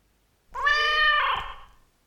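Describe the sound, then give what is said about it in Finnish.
A single drawn-out cat meow, clear, rising and then fading over about a second with no other sounds around it. “Mä oon ainakin valmis uskomaan, että koukkujalka todella oli Potterien kissa.”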